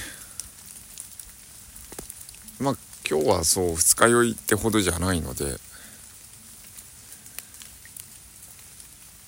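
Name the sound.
rain falling outdoors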